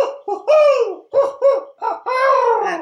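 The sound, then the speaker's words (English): An owl gives a series of loud hooting calls, several quick bursts in a row and then one longer, wavering hoot. “owl, I swear, almost got my head that time.”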